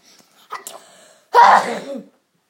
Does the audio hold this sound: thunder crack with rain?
no